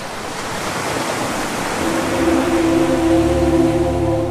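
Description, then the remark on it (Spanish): Loud rushing water and crashing surf fill the scene, a dense roaring wash that swells midway as a deeper, tonal rumble of churning currents builds beneath it. “De repente, con impetuoso sonido de corrientes que chocan,”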